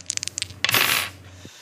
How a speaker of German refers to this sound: Ich habe jetzt einen W6 in der Hand, also einen Würfel mit sechs Augen. Toller Tesserakt. Ich würfel mal.